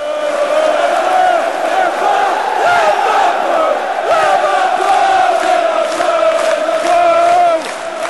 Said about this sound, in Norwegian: Spillerne gikk ut til en mur. En mur av lyd, spetakkel, klapping, synging, rop.